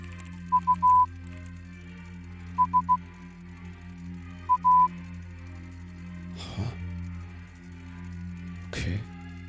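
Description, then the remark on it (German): Three quick groups of steady, mid-pitched Morse code beeps mixing short dots and longer dashes, played over a humming loudspeaker with a play button beside a Morse-code door lock, followed later by two dull thumps. “Nee, nee, nee, ich will den, den Morse-Code auch noch hin.”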